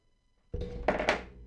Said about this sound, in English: Whoops. Well, dropped my phone. Didn't do that on purpose, but it's honestly a perfect reaction because I'm pissed off.